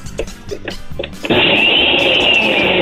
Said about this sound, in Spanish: ¡La licuadora, venga!